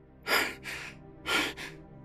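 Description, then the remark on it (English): Heavy, breathless panting from a man sitting straight up in bed on waking from a nightmare: two quick rounds of sharp, airy gasps in and out, loud and ragged, with no words spoken. “Scott sat straight up in bed, panting as the dream fell away from him.”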